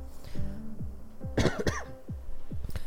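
A couple of sharp coughs in quick succession, followed by another brief cough a moment later, with no talking around them.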